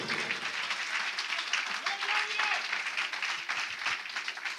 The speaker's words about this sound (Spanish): Dale un aplauso fuerte a ese Dios de poder.